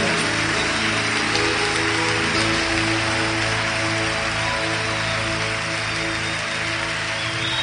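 A crowd applauds for Jesus Christ in a dense, steady wash of clapping that holds at an even loudness for several seconds, with sustained low tones humming underneath and no voices.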